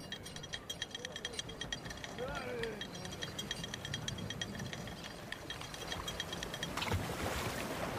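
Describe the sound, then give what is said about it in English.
A small rowboat is lowered from a ship onto calm water in thick fog, with wooden creaks and rope strain over steady ambient wash, ending in a splash and churn as the hull meets the surface. “Lower the boat.”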